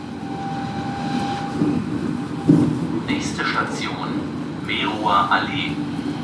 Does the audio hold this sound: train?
yes